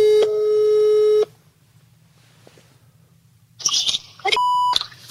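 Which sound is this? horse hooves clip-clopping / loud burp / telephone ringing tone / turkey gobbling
telephone ringing tone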